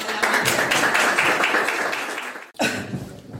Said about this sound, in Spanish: ¡Un aplauso! El 20. Han cantado el 20. ¡Un aplauso!